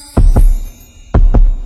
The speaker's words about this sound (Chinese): 一次心动，我听见心跳在扑通，